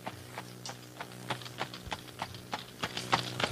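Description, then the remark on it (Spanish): Hooves clip-clop in a steady, regular rhythm as a horse-drawn tartana, a simple cart, rolls along rough country paths, the sharp knocks moderately loud over a low rumbling background. “se hizo comprar una sencilla tartana, con objeto de cruzar mejor por aquellos caminos agrestes”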